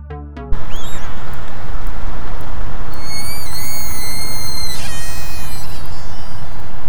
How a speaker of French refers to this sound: Et oui, ce sont bien des sifflements d'orques. C'est beaucoup, beaucoup trop mignon leur bruit.